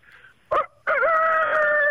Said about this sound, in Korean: 자, 닭소리로 이 시간 마무리하겠습니다.